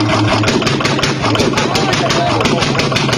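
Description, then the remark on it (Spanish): A faulty car engine runs steadily with an uneven, rapid ticking or knocking rhythm riding over its low rumble, sounding rough and mechanically off; the car needs a new engine. “¿Cuál es el problema que tiene este carro? Escucha todos los sonidos que está haciendo.”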